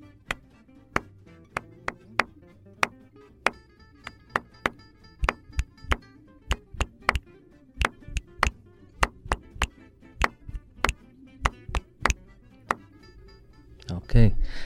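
Two interlocking tapped ostinato rhythms, played together by two people, repeat steadily, sharp percussive knocks landing at uneven but recurring intervals, fairly loud, with a soft rustle and faint murmur underneath before a brief burst of noise at the end.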